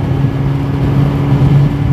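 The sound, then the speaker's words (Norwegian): A motorcycle engine revs loud, its low, throaty drone holding steady for a couple of seconds with slight surges in pitch, and no voices. “Her er det ei som rullet ned vinduet, og så vise han øret eh, sitt, så han ville sikkert jeg skulle ruse han litt”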